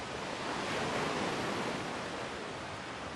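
Steady, full rush of ocean surf washing onto the eroding shore of Guadalcanal in the Solomon Islands, where a football pitch once stood, a continuous roar that swells slightly before settling, with no voices present.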